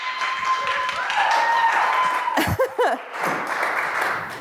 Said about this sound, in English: all the clapping is a lot. You're excited today.